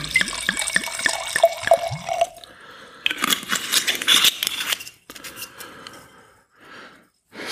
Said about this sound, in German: Dann machen wir gleich noch den Chardonnay dazu auf und der kommt dann ins rechte Glas. Ist wieder das schöne Geräusch eines Drehverschlusses, aber mit der Zeit gewöhnt man sich auch daran.